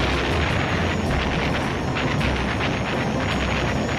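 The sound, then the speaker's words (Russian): Heavy, continuous rumbling roar of artillery cannon firing at a German Zeppelin airship flying very high during the First World War, with repeated dull booming thuds at irregular intervals blending into a dense wall of noise. No voices. “Пушки не могут подбить его.”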